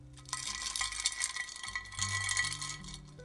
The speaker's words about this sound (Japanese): 氷の音を今あえてマイクの前で鳴らしてみたんですけど聞こえましたでしょうか